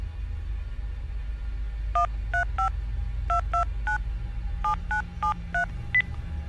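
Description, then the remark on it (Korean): A rapid series of short, crisp keypad tones, about eleven beeps in uneven clusters, as the phone number of an inn is dialed over a low steady hum, with no voices. “결국 난 여관의 전화번호를 눌렀다.”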